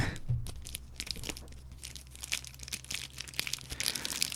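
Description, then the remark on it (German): Crinkling and tearing of the wrapper of a John Elsbury Jubilee Edition 1999 long-filler cigar as it is opened outdoors, a steady stream of crisp rustles and sharp crackles over a low background hum, with no voices. “Das könnte das Telefon einer Zigarrenverpackung sein”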